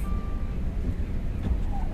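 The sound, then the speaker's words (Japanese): Steady low rumble of a car's interior while driving to the Hello Work job centre early in the day in a snowstorm, a constant road and engine drone filling the whole stretch at moderate loudness, with no one speaking. “今日はですねちょっと今まだ早い時間で、えー、なんですけれども、えっとね、ハローワークに行く日なのであの車を走らせているところです外はね結構吹雪で”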